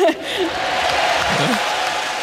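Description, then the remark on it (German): An audience at a tournament applauds for Martina Hingis, a dense continuous patter of many clapping hands that holds its level for a couple of seconds, with a faint voice briefly audible underneath. “klatscht es dann doch auch wieder für Martina Hingis.”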